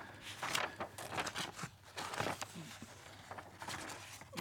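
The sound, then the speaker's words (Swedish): Papers rustle and crinkle in short, irregular bursts as someone shuffles and searches through a stack of their papers. The handling is soft but steady, with no talking. “Bara jag hittar mina papper.”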